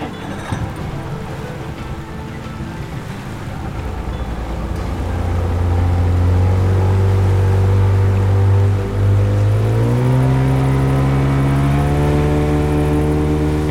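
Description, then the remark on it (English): A motorboat engine on a river in Guainía, heading upriver toward the Cerros de Mavecure, starting with a rough idle and rising into a loud, steady drone with harmonic tones that climb in pitch as it speeds up. “So, um, we're on the river, let's go.”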